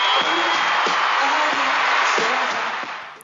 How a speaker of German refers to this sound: Viele der Zuschauer pfeifen und buhen.